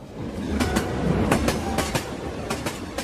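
A train rolls steadily along the rails with a loud, continuous rumble, punctuated by repeated sharp clickety-clack beats from the wheels crossing rail joints in an uneven rhythm. No one speaks.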